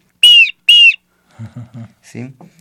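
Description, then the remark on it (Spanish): Two loud, shrill blasts from a two-chamber clay whistle, each about a quarter second, mimic a hawk's piercing cry, followed by softer, lower murmuring sounds. “Este que tiene dos es de halcón,”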